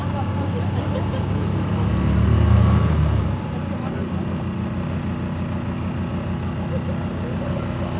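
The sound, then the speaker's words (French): A sailboat's motor chugs low and steady while reversing out of a harbour, swelling louder for a moment early on before easing back to a constant idle rumble. “Où sommes-nous euh, Sur le Un voilier bateau à voile.”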